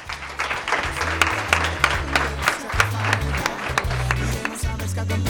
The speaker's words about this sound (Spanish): Sin un fuerte aplauso para los tres compañeros, hombre.